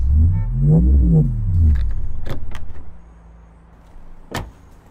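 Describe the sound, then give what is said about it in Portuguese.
A car's engine hums low and wavers, then a few sharp mechanical clicks ring out as a door latch releases and a car door is opened on a street on Fifth Avenue, with a final louder clack. “Virei para o cara do banco de trás enquanto abria minha porta.”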